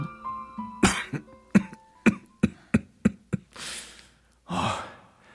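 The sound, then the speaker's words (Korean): A man with a long-lasting cold coughs repeatedly in a loud fit: a series of sharp, evenly spaced hacks, followed by two long, raspy wheezing breaths. No speech. “아, 이상하다. 왜 이렇게 장기침이 계속 나지?”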